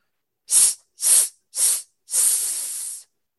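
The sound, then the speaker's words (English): A person hisses through their teeth as a vocal breathing exercise during a singing warm-up: three short, sharp sss bursts in a steady rhythm, then one longer sustained hiss. Fairly loud, with no talking. “you're warming up the muscles and then you do your breathing exercises and you do stuff like”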